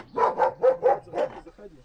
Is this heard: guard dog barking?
yes